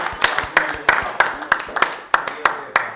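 Applause in a steady, rhythmic pattern: sharp, bright claps land roughly every third of a second, with softer claps filling the gaps between them. No one speaks over it.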